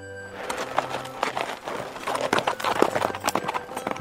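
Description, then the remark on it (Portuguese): Many horses gallop past in a rapid, continuous clatter of hooves, loud and close, with overlapping clip-clop beats and no voices. “Por isso, logo, logo, em minutos, lá ia a cavalgada toda, armada até os dentes, em busca da fulaninha.”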